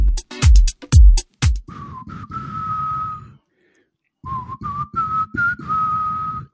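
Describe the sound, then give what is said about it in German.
A slow, wavering whistled melody of a rock ballad drifts through several sustained notes, pausing briefly midway before resuming, preceded by a few sharp, loud percussive knocks at the start. “Mm, lass mich das mal probieren. Ich kann nicht pfeifen.”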